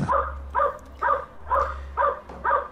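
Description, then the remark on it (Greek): A small stray dog following a person yaps six times in a steady, evenly spaced rhythm, about two barks per second, clear over a low constant background hum, with no one talking. “Έχει ένα σκυλάκι το οποίο ακολουθεί ένα άτομο και γαβγίζει συνεχώ τώρα.”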